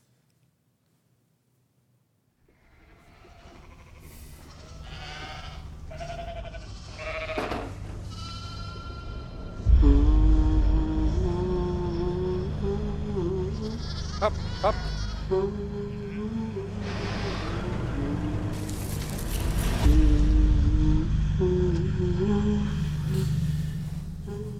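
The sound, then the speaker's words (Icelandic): Soundtrack from the trailer for the film Dýrið: a swelling low drone and tonal music layered with repeated sheep bleats, punctuated by two deep booming hits, with a voice briefly calling out. “Já, þetta er kannski eitthvað sem útskýri sig ekki alveg sjálft en þetta er hljóðrás úr kynningastiklu fyrir kvikmyndina Dýrið.”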